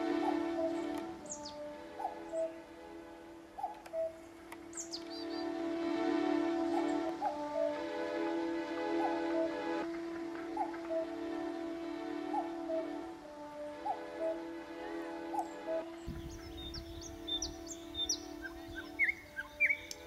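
Birds chirp and tweet in scattered short calls throughout, over a steady low tonal drone, with a brighter flurry of quick chirps toward the end. No one speaks.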